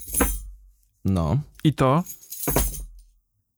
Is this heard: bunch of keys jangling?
yes